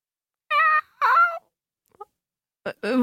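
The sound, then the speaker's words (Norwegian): A person imitates a cat meowing, making several short, nasal, pitched meows: a pair of quick calls, a pause, then another pair. “Nå skal du høre her. Mjau. Mjau.”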